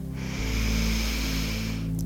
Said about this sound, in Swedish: Så andas vi in och suckar iväg. Igen, andas in, känn att du får längd